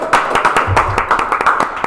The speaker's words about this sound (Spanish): Pero antes queremos agradecerle a la gente del Hotel Novo Express en Caracas por prestarnos sus instalaciones. Aplauso para ellos, por favor.